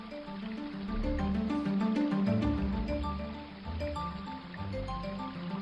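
A forest stream flows steadily with a continuous burbling rush, even in loudness, while soft sustained musical tones float over the water.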